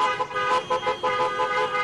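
A loud, overlapping chorus of car and truck horns honks almost continuously, with blasts swelling and fading in a steady pulse over traffic noise and no voices, as a caravan of Trump supporters' trucks and cars in Texas surrounds and follows a Biden campaign bus.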